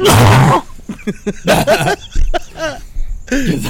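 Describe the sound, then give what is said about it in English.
A single loud, harsh cough bursts out, followed by voices talking and laughing. “you already, you already coughed hard.”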